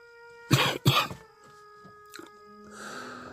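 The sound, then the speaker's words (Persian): Two loud, harsh coughs in quick succession, followed by a quieter rasp and faint background noise with a steady tonal hum. “سرفه کرد”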